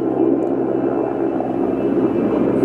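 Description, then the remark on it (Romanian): A helicopter drones steadily overhead, a continuous loud rumble of engine and rotor noise holding at an even level throughout, with no voices. “E un elicopter aici, cred eu, care vine, așa.”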